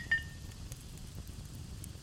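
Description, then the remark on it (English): A single bright glass clink as glasses touch in a toast rings out near the start and fades over a fraction of a second, followed by a low, quiet rumble with no talking. “Cheers. Yeah. Cheers. Cheers. Cheers.”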